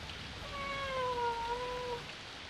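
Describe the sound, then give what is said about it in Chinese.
A single long, drawn-out meow from Hamish, a big yellow cat, with a steady, slightly falling pitch, lasting over a second against faint background hiss, with no talking, as thunder rumbles and heavy rain pours down. “大雨倾盆而下，哈密士叫啊叫啊，还是没有人听到。”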